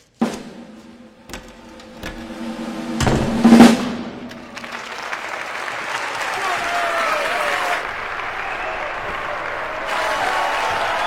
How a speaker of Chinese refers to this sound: 只不过掉下去的狼叔只能用耳朵感受观众的掌声，而留在舞台上的替身美美的享受着这一切的荣耀，这让狼叔心里泛了涟漪。